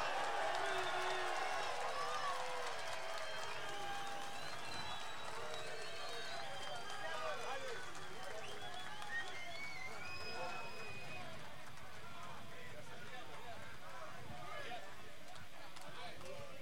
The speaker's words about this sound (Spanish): Un aplauso para …, por favor.